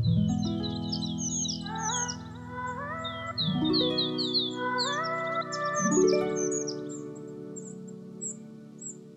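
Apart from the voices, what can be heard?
forest ambience with birdsong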